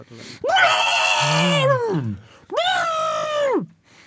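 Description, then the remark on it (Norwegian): A person vocally imitates an angry elephant with two loud, strained trumpeting blasts, the first longer and wavering and dropping in pitch, the second steadier, separated by a brief pause. “neste, neste lyd er en elefant som er sinna og sur.”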